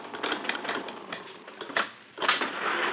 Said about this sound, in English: As they read the list of tenants' names on the wall, a creaky elevator halts at the first floor.